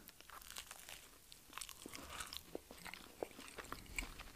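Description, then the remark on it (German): A bite into a crisp pastry shell, followed by a run of dry crunching and crackling chews, fairly quiet and irregular, with no talking. “Also hat jetzt nicht gekracht, aber durchaus geknuspert.”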